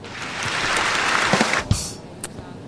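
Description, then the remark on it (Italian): A short burst of clapping, dense and fairly loud for about a second and a half, then breaking into a few scattered claps before fading out. No voices are heard. “Sei stato molto efficiente, ti meriti un applauso.”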